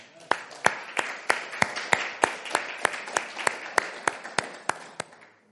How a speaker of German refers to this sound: Ähm, es werden mehr Menschen sein insgesamt, aber immer 80 Leute, die dabei sind. Und das ist richtig cool. Lass uns mal einen Applaus geben dafür.